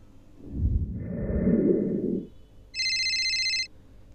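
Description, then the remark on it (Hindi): Late at night, a phone gives one short, bright electronic ring lasting about a second, following a stretch of muffled rustling or breathy noise; a man asleep in bed cuts the call without looking. No one speaks. “उसने बिना देखे कॉल कट किया और सोने चला गया”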